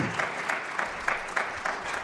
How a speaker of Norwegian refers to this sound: Skal vi gi en applaus til teamet bak her òg, som har gjort en eh, fantastisk innsats i dag.